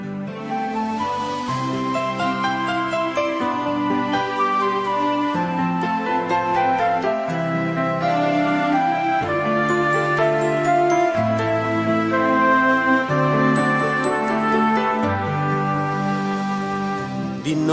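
The instrumental intro of a Catholic religious song about the baptism of the Lord plays on La Voz Católica radio: layered sustained chords over a steady bass line, with bright chiming notes on top, at an even, full volume and no singing.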